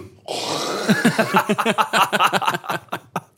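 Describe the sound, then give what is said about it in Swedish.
A voice imitates a father's loud, exaggerated throat clearing and hawking in the bathroom before he goes to bed: a harsh, noisy rasp that breaks into a rapid series of guttural rattling pulses, with no other sounds around it. “och liksom så spränger sina egna vad heter det, stämband på grund av harkling.”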